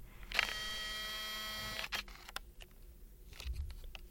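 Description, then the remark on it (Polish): A photo camera's zoom lens motor, recorded in a studio, whirs with a steady, high mechanical whine for about a second and a half, then stops with a few small clicks and mechanical ticks, alone. “I właśnie przyniosłem swój aparat fotograficzny do, do studia i nagrywałem y, pracę tych mechanizmów, które robią zoom w tym aparacie.”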